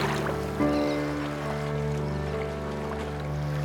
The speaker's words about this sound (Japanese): あれここはボートの上だあここは五大湖の一つエリー湖だ大きな湖まるで海みたい向こう側がカナダであっちがアメリカだ2つの国の間にいるなんて不思議な感じ。のボートどこへ行くんだろう流れに任せて行ってみようか